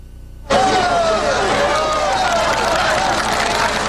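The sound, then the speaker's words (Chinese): After a half-second of low background noise, a crowd at a rescue scene abruptly bursts into loud cheering and shouting, a dense roar of many voices that stays strong to the end, as a man buried nine meters down a hot spring well is rescued after a 26-hour effort. “救出了刘进德，现场也响起了一片欢呼之声”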